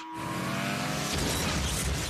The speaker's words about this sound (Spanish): Esto es todo lo que nos dejan enseñar para contarte de qué va el nuevo Burnout 2. Coches echando leches y dándose piñazos.